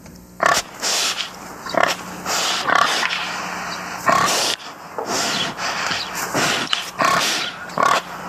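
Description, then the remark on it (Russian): Orchid Island wild dwarf pigs grunting and snuffling, a string of short, raspy bursts arriving irregularly every second or so over a steady hiss, with no voices present. “А я напоминаю, что вы можете увидеть этих карликовых свинок с острова Орхидей в тайбейском зоопарке.”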